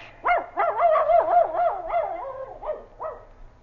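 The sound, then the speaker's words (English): A small dog, Queenie, barks in a quick, excited string of high-pitched yips, about eight or nine sharp barks in rapid succession, fairly loud with no voices. “Quiet, pup.”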